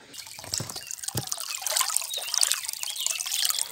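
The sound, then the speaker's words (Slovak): Spring water pours steadily straight from a spring into a cold-water cooling tub used after a sauna, on a hillside among orchard, meadow and forest, a continuous bright splashing and trickling with occasional louder gurgles, with no voices. “A je tu aj schladzovacia kaďa s, so studenou vodou, do ktorej rovno tečie voda z prameňa.”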